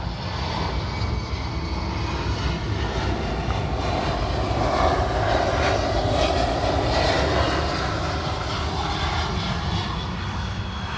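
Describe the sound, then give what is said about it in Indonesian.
A steady, loud roar of an airplane engine passing overhead, a broad rumbling drone that swells slightly in the middle and fills the whole stretch with no talking. “masuk ke podcast nggak sih suara pesawat nggak tahu nggak ada biar nggak, kalau masuk kita tuntut dia biar masukin iklan gitu ada suara pesawat lu loh di mari gitu”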